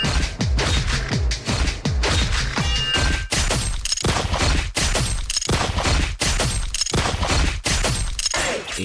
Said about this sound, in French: D'où la fin de la chanson euh, qui est, très brutale où j'ai utilisé des, des bruits d'épée et des bruits de, du, des de flingue. C'était pour montrer entre guillemets de l'agressivité que peut être une relation amoureuse.